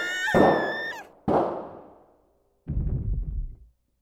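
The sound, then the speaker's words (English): Two loud gunshots ring out about a second apart, each with a long echoing decay, followed by a lower, rumbling burst a moment later. “The sound of gunshots startled me so badly, I peed myself.”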